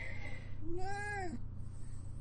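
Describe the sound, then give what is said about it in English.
A cat lets out a single drawn-out meow, rising and then falling in pitch, over a steady low background hum, while climbing all over a person. “Oh my god, the cat is climbing all over me.”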